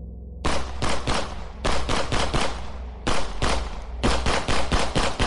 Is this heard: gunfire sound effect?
yes